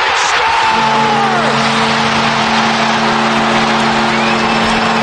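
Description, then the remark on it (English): A loud, sustained hockey crowd roar as the Hurricanes win game five in overtime after a shot by Kotkaniemi fills the whole stretch, a dense wall of cheering that never lets up, with a steady low horn-like drone sounding through it. “Crowd pop.”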